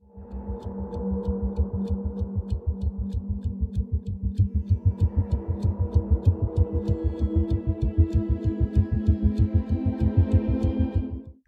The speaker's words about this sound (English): This is a score designed to keep the viewer on edge, and for one thing, we hear the sound of ticking throughout.